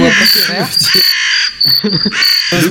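Three loud, harsh crow caws, each a raspy drawn-out call with short gaps between, the first one longest.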